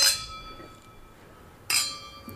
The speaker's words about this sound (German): Also, cheers. Cheers. Stoßen wir an.